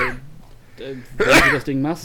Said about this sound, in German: Gesundheit. Danke